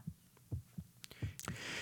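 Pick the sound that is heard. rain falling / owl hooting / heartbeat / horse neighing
heartbeat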